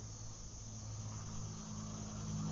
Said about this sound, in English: I hear an airplane in the distance, cars passing on the road